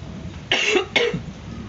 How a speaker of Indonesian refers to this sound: tapi sorry aku lagi batuk semoga ini bukan omikron tapi tenggorokan gatel kadang kalau malam demam pusing nggak begitu nggak sesek juga batuk biasa batuk biasa batuk biasa